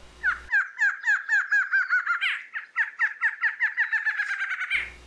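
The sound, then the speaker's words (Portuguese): A barred antshrike (choca barrada), a widespread species in the country, calls alone at the CBN radio studios: a rapid, rolling series of nasal, mid-pitched notes, about two dozen in four seconds, briefly faltering midway before speeding up again toward an emphatic finish. “Pois é, é o som da choca barrada. Uma espécie de ampla distribuição pelo nosso país e que o Reger fez um flagrante nos estúdios da rádio CBN.”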